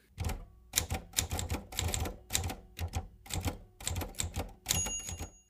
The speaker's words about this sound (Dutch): Ik begon achter de typemachine